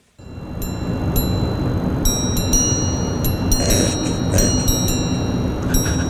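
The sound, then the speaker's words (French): A sequence of bright, high-pitched chime strikes rings out in a quick, uneven rhythm from a wristwatch's grande sonnerie striking mechanism, like a grandfather clock, over a steady low rumbling background hum. “t'as la grande sonnerie. C'est-à-dire, c'est carrément comme une horloge grand-père”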